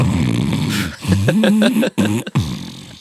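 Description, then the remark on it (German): Snoring from a muezzin's microphone broadcast over a loudspeaker through a whole town: a few drawn-out, rumbling, nasal snorts with wavering pitch, separated by short pauses, slightly distorted. “Und ich glaube, das ist echt ist eingeschlafen und schnarchelt.”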